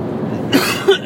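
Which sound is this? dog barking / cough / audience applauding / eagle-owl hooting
cough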